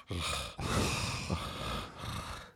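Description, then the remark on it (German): A person imitates heavy, loud breathing, with two or three long, rasping breaths in quick succession and no words. “er atmet so.”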